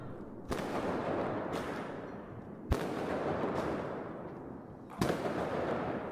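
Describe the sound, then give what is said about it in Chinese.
Firecrackers being set off outside on Chinese New Year's Eve (Chuxi): a dense, steady crackling roar with three loud sharp bangs about two seconds apart, and fainter pops between them. No one speaks. “那天晚上就是外面放鞭炮的时候，我带小新出去了，然后小新就特别的惊恐。”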